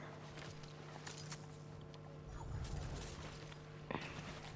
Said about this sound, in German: Ist das unser Motor? Nee, das ist ein anderes Motorrad.